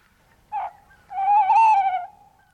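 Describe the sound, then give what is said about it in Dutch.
A male tawny owl's territorial hooting: one short hoot, a brief pause, then a long, quavering, wavering hoot, clear and mid-pitched with no voices over it. “Dit is echt het, eh, het kenmerkende zang van het mannetje.”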